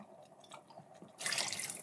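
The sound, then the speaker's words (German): Soft wet drips and small liquid squishes, then a louder rushing slosh of water swirled around inside an emptied tomato tin to rinse out the remaining tomato, with no voices. “wenn du dann die Dose nimmst, ne, kannst du nochmal mit dem Wasser ausschwenken, dann hast du die ganze Tomate da”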